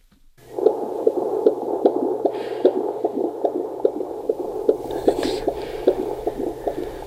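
A rapid, steady whooshing pulse of an unborn baby's heartbeat through an ultrasound monitor during a pregnancy scan in summer 2021, the mother's fourth pregnancy, rhythmic and fairly loud, with a muffled hum beneath and a faint voice briefly in the background.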